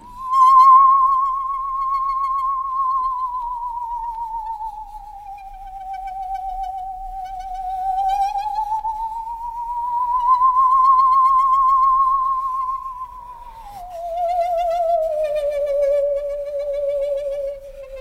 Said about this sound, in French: La scie musicale, instrument souvent considéré comme un gadget, mais qui a suffisamment d'identité pour être associé à des ambiances bien précises. Comme dans cet extrait d'ouverture, pioché dans un disque de bruitage de film d'horreur.